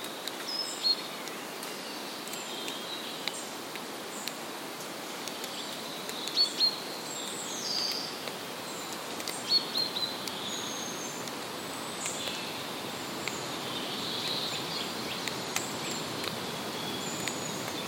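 Quiet outdoor ambience of an ancient woodland with a steady wash of background hiss, scattered bird chirps and faint insect-like buzzing, no voices.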